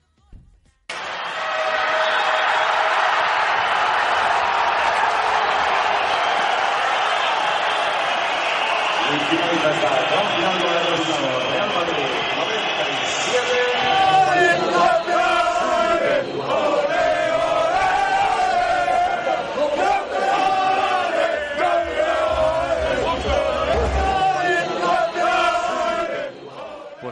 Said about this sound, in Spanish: Campeones, campeones, gritaban los jugadores del Real Madrid.